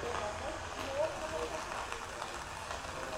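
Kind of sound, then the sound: nature, rain falling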